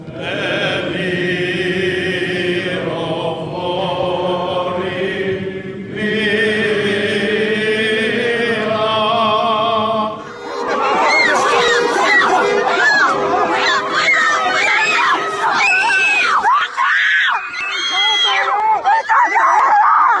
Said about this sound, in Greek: Οι κραυγές αυτές είναι από τη Σαγκάη. Με τις κραυγές αυτές αντιμετωπίζουν οι άνθρωποι το πιο βάρβαρο lockdown από την αρχή της πανδημίας.